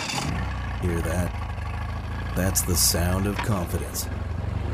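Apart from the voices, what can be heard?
boat engine running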